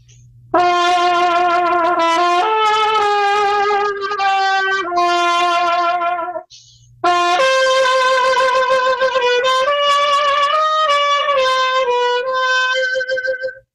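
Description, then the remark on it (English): A loud, bright trumpet plays a dramatic spaghetti western style melody of long held notes with vibrato, in two phrases separated by a brief pause, with no talking. “You know, I, for instance, someone called me to do a um, uh, kind of like a spaghetti western soundtrack thing.”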